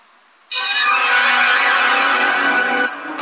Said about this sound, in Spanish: Sonó la chicharra, hago una pausa,